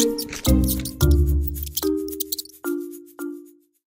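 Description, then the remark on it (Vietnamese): A run of about five cartoonish mouse squeaks, each a sharp, ringing chirp that fades quickly, coming at an uneven pace with no talking. “Hình như là sắp có chuột đi qua đây”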